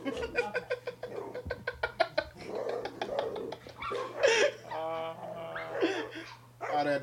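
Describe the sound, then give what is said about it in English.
A dog in an Instagram video whimpers and yips, with a quick run of short, sharp yips giving way to longer, wavering whines, all over a steady low electrical hum. “Dogs be like that too.”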